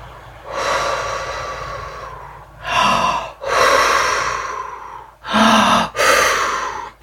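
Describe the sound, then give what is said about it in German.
A voice imitates wind with a series of breathy, whooshing blows: about five gusts of varying length, some long and drawn out, others short, with brief pauses between them. “Und das Sternchen sagt, hörst du den Wind pusten?”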